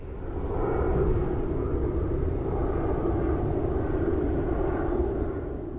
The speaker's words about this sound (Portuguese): Som de avião comercial.